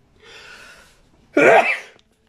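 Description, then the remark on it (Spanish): A single sneeze, fairly loud: a soft, breathy intake builds for under a second, then a sharp voiced burst, followed by quiet. “Un estornudo.”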